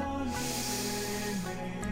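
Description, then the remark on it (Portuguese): A long, deep breath exhaled through the mouth as the eyes are opened, an airy hiss lasting over a second, over a soft, sustained musical drone. “soltando o ar pela boca, abrindo os olhos.”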